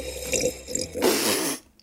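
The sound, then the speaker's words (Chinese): A wet, spluttering spray of coffee bursts out in one sharp spit-take as a person, surprised at seeing an elephant, spits it out, preceded by brief gurgling sips; loud and splashy, then cut off abruptly into silence, with no voices. “一发现眼前是一只大象，这个人惊讶地把咖啡都喷出来了。”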